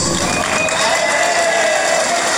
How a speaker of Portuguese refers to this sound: Cadê o grupo da melhor idade? Salva de palmas para o grupo de, da maior idade.